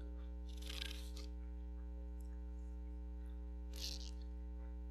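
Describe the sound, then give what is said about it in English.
Two short bursts of crinkly rustling as people grab shiny, brightly colored paper sheets, separated by a few seconds, over a steady low electrical hum. “So, you guys saw those pretty shiny pieces of paper all over the room? Could you grab one of those?”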